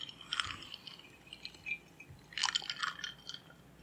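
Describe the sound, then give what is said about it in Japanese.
Someone drinks a Kaku highball after a toast, with soft, wet sipping and swallowing sounds in a few short bursts, the last cluster fuller and louder. No one speaks. “今週はね、あの、ハイボールの、うん、えー、ちょっとね、えー、角杯を、えー、いただいてますので、まあ、安い酒でね、酔いながら行こうかなと思っておりますので、うん、じゃあ、うん、乾杯で。”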